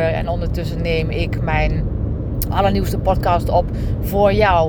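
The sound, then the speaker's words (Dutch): A car engine hums steadily in a low, continuous rumble while the car is underway, running beneath a person talking throughout; the speaker is a passenger, not the driver. “ik rijd trouwens niet zelf, want het geluid wat je hoort is, eh, we zijn onderweg, we zijn onderweg. Dus de motor die snort”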